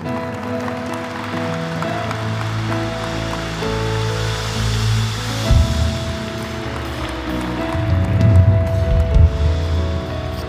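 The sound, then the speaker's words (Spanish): An audience applauds the Lord loudly and continuously, a dense wash of clapping that swells and grows stronger partway through, with sustained keyboard chords droning underneath. “Oh, dale un fuerte aplauso al Señor.”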